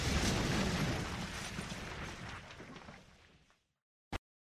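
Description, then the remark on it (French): A loud, booming gunshot-like blast fills the opening seconds with a long rolling decay, followed by silence and then a single sharp, brief crack near the end. “Il s'agit d'un coup, un coup de feu, qui a été tiré clairement.”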